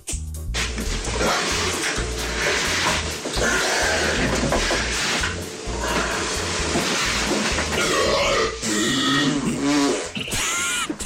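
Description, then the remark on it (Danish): A recording of loud, sputtering fart sounds from England, broad and buzzy with low rumbling bursts, running almost continuously with short breaks and rising squeaky tones near the end. “med prutter at gøre og sådan noget”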